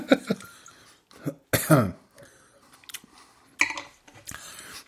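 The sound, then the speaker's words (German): Several harsh coughs and throat clearing sounds in irregular bursts from a person with something bothering the palate, with one louder, rasping cough in the middle and short quiet gaps between them. “Achtung, Räuspertaste.”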